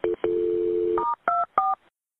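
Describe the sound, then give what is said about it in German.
A short series of telephone keypad tones as an emergency call is transferred to the fire department: a brief beep, a long sustained tone, then three quick higher beeps in a row, clear with no voices. “Okay, stay on the phone. I'm going to transfer to the fire department.”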